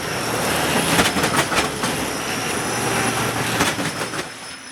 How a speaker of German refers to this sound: Der Büffel, das ist ein Gleisbauzug. Der gelbe Gigant ist unterwegs auf der ICE-Trasse Berlin-Hannover, im Norden von Sachsen-Anhalt, in der Altmark, zwischen Gardelegen und Öbisfelde,